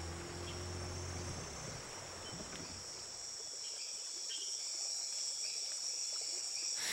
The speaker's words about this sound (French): On écoute seulement ce ronronnement du moteur et puis derrière, quand ça ralentit, quand on s'arrête, le son de la forêt se rapproche